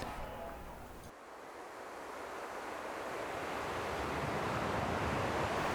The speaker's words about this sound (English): As the black fades, you hear the soft sounds of ocean waves lapping against the sandy beach.